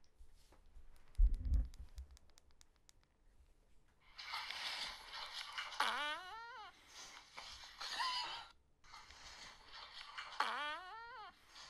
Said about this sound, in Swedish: Alltså han fes en majtjua! En, en b-moll majtjua.